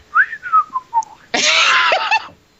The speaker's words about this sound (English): Oh, I'm trying to whistle casually, but I can't do it. You want to do it for me?